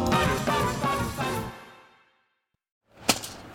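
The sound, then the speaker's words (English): After a fading burst of music and a brief silence, a rake strikes the ground once with a sharp whack, followed by a short scrape. “It's the sound of someone whacking the ground with a rake.”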